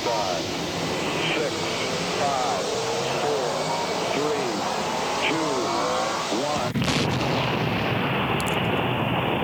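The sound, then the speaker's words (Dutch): A rocket launch: a steady rumbling roar with faint voices underneath, then a sudden loud ignition blast about two-thirds through that gives way to a harsher, sustained thunderous roar. “En met een knal. gaan we omhoog.”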